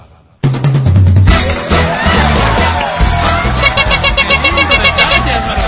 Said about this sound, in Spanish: Hemos preparado para ti algo especial, algo a la altura de tu talento. Te pido por favor que lo escuches. Es un aplauso grabado.